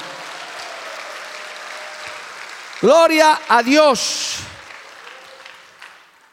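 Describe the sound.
An audience claps for the Lord in a steady, dense patter throughout, while a man's loud voice cuts in over the applause for a couple of seconds before the clapping tapers off.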